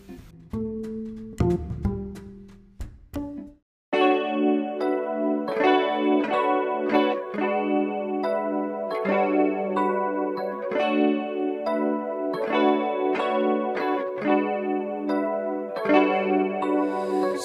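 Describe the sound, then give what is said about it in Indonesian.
After a brief, choppy intro and a short gap, a loud pop song, one of this week's hits, plays steadily, with bright layered synth chords pulsing in a regular rhythm and a washed, effects-heavy sheen. “Sekarang kita dengerin hits minggu ini yuk.”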